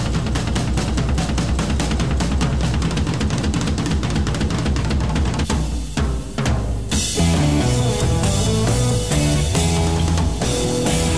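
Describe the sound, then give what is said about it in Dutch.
Loud, dense heavy rock with distorted power chords and bass playing in unison, driven by busy drumming with quick fills and a brief break midway before the full band slams back in. “Voilà, en ook eh, distortion, power chords, bas, unisono, de drummer gelijk naar gek aan tussendoor vliegen.”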